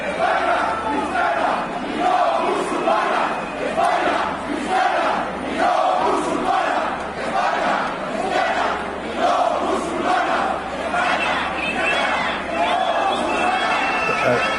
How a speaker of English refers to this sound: you're seeing a massive protest that's live, I think, right now in Spain.